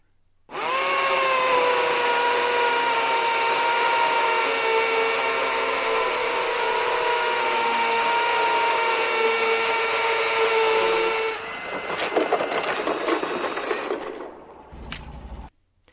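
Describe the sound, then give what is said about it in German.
A neighbour's power drill whirs at a steady high pitch for about eleven seconds, then shifts into rougher, grinding bursts as it bites into material before cutting off, loud, with no voices. “Jetzt müssen wir dieses Bohrmaschinengeräusch natürlich unbedingt da herausschneiden, denn wenn man eine Lesung macht und der Nachbar fängt im ungünstigen Moment an zu bohren, haben wir ja Gott sei Dank Möglichkeiten, da etwas zu tun.”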